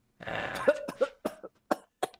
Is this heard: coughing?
yes